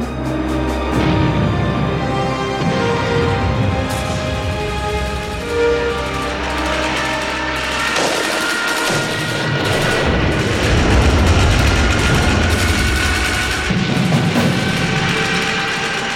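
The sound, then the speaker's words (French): Loud, continuous gunfire and explosions from a night air attack by grenade-launching aircraft, with grenades exploding all around, rapid bursts of shots, heavy booms and a steady low rumble throughout, no voices. “Les Rochambelles vont bientôt découvrir la guerre sous le feu d'un avion lance-grenade.”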